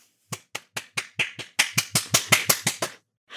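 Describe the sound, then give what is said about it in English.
A quick, steady run of about a dozen sharp, crisp hand claps, growing a bit louder partway through, with no voices. “Clap on.”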